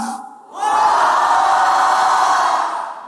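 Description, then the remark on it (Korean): A large crowd at a sermon in Geumjeong-gu, Busan, bursts into a loud, sustained collective shout on cue, after a brief moment of quieter sound, the roar holding steady for over two seconds before starting to fade. “금정구가 무너지도록 소리 한번 지르시다다 같이 시작!”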